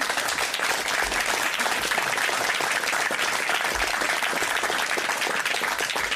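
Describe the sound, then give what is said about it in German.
Sustained audience applause, a dense steady wash of many hands clapping at even loudness throughout, with no voices breaking through. “Ihr Applaus.”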